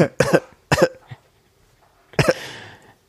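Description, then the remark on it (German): Several sharp coughs come in quick bursts: a double cough, a single one, then a final harsher cough that trails off into a raspy breath, with no talking. “Hust.”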